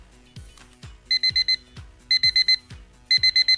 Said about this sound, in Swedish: Det här är ett vanligt scenario för många morgontrötta. Väckarklockan ringer men man trycker på snusknappen och sover vidare och vidare så många gånger att man till sist får en betydligt mer stressfylld morgon än om man hade stigit upp genast.